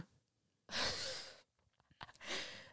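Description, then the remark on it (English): Two sharp, breathy gasps: a long startled intake of air, a brief pause with faint rustling, then a second gasp beginning as the sound cuts off. “The grandma gasp you don't know, the line of women in our family have a hereditary gasp that we do every time something happens.”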